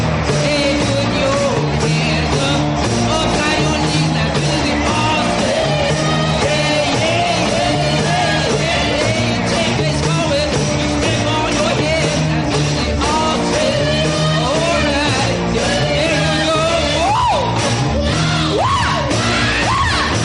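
A raw, loud 1964 garage rock song from the dance-craze era plays throughout, with shouted, yelping vocals over driving guitars and steady pounding drums, dense and energetic from start to finish.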